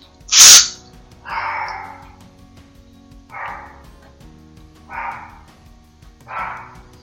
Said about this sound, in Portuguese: A dois vizinhos de distância, ele possui um cachorrinho que ele tem um ouvido tão sensível que ele pode ouvir quando eu aciono o meu spray de inseticida. E ele late desesperado, como eu vou mostrar agora.